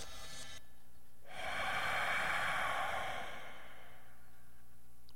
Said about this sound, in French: Tout ça pour ça, c'est pas extraordinaire. En 2024, entendre ça, des respirations indéterminées, étranges,